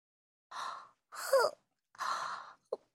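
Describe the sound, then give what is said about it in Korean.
A drawn-out, breathy yawn, three airy exhalations in a row and then a short catch of breath at the end, with no talking. “그 애가 하품하며 말했다.”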